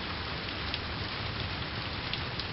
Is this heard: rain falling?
yes